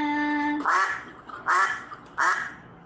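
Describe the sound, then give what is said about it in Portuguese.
A voice imitates a duck with three loud, nasal quacks spaced evenly about a second apart, after a brief sustained hum, with no talking. “Logo depois veio o pato e a dona Baratinha perguntou: Quem quer casar com a dona Baratinha que tem fita no cabelo e dinheiro na caixinha?”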